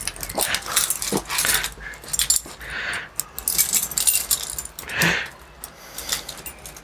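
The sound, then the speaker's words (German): Keys jangle and clink in repeated bursts as a man takes out his key to open the door at home, mixed with excited yelps and whines from a dog; no one speaks. “Ich kann ja mal eben noch zeigen, wie der Kleine, das kann man vielleicht hören, sich absolut freut, wenn der Papa seinen Schlüssel rausholt um die Tür aufzumachen.”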